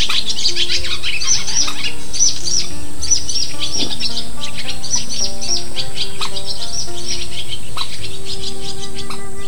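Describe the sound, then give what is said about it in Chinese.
A lively chorus of wild birds around a lotus pond, with wild ducks, cuckoos and swallows calling from all directions over one another in a steady stream of bright, high chirps and twitters, continuous and fairly loud, with no voices. “先是各种各样的鸟声从四面八方传来，野鸭的声音、布谷鸟的声音、燕子的声音，煞是热闹。”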